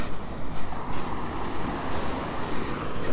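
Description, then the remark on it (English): Steady surf at West Bay Beach washes in continuous rolling waves as the tide goes out, a broad hiss with a rumbling low end and gentle swells in loudness, mixed with wind buffeting the microphone. No voices are present. “I'm on West Bay Beach. The tide's going out.”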